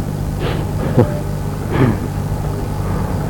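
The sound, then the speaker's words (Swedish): A heavy truck rumbles at a construction site for a terraced-house development, a steady low engine drone with a couple of brief louder surges, no voices present. “Arbetaren frågade någon av dem så att du kan räkna med att det närmaste året så kommer dygnet runt kommer det komma och gå lastbilar här.”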